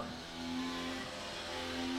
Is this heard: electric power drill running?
no